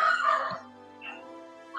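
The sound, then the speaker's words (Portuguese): Dogs bark a few times, with a longer yelping burst at the start, a short bark midway and another beginning at the end. Nobody speaks. “Os cachorros estão latindo agora.”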